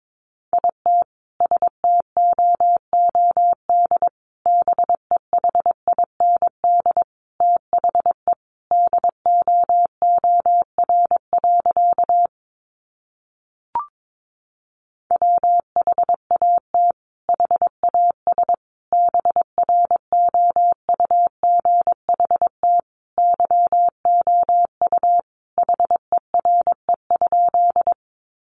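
Morse code sent at about 22 words per minute, sending sentences made from the top 500 words: a steady, mid-pitched tone keyed into rapid dots and dashes, with a short break partway through before the sending resumes.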